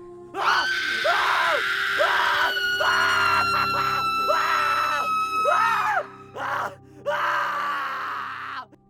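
Two people scream loudly and continuously in uncontrollable euphoria for several seconds, their high, strained voices rising and falling in overlapping wails, with a brief break near the end before one more sustained scream.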